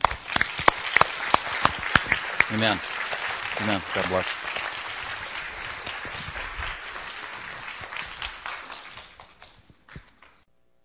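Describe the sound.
A church audience at Grace Bible Fellowship breaks into sustained applause for a couple after a prayer of blessing, scattered sharp claps at first swelling into a dense wash, with a few voices calling out over it before it fades away.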